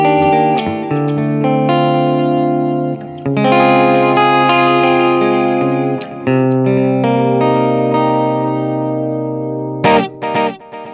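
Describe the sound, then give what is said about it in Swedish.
Electric guitar notes played hard staccato run through a rhythmic delay effect, each attack followed by repeating echoes that blur into a sustained, ringing wash. Loud, with no talking. “Så att man gör det här bra, så, så hårt staccato, det hör man studsarna. Spelar man vanligt så smälter det ihop.”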